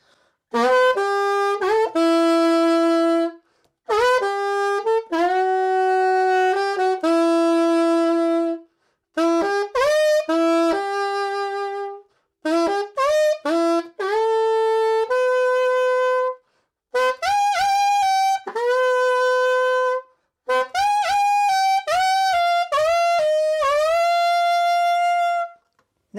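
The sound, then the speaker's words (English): A guitar plays the main melody of a song in several short phrases separated by brief pauses, with a saxophone sustaining notes underneath; the instruments sound fairly loud, and nobody speaks. “We are going to echo exactly what the guitar plays”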